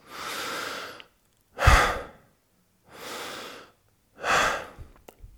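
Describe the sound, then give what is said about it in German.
Four slow, deep breaths taken through the mouth and nose simultaneously, alternating airy inhales and stronger, rougher exhales, each about a second long with short pauses between and no talking. “dann kannst du für ein paar Atemzüge auch zum Beispiel nach einem All-Out-Workout, nachdem du fix und fertig warst eigentlich, nochmal drei, vier, maximal fünf Atemzüge machen durch Mund und Nase gleichzeitig.”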